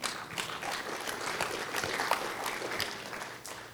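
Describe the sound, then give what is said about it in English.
Sustained applause from a group during a church service, clapping for God who calls people into ministry, many hands clapping in a dense, steady patter at fairly constant loudness throughout, easing slightly at the very end, with no one speaking over it. “And, and I'm clapping f- for God who still calls people into ministry.”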